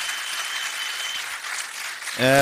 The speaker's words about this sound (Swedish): Eh, vi ska uttrycka ett stort tack till vår panel med kanske en liten applåd när vi har applådkraft i lokalen.